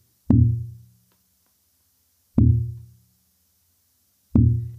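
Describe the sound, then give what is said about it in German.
A very slow pulse heartbeat: three deep, booming low thumps spaced about two seconds apart, each fading quickly into silence before the next. “Dann ein sehr langsamer Puls”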